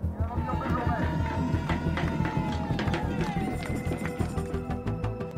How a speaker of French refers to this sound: sous les huées et au son des tambours, l'élu de la majorité est la cible de nombreux projectiles, de la boue, des algues, des cris et des rires.